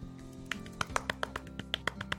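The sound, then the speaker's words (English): A little clapping: a quick run of about a dozen light, sharp claps at an uneven, brisk pace, fairly soft, over a steady low hum with no voices. “We get a little clap for Colo.”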